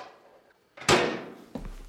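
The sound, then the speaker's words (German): A refrigerator door is pulled open with a sudden broad thump that trails off slowly, then a softer second knock follows about half a second later. No one speaks. “Ich habe da noch was im Kühlschrank.”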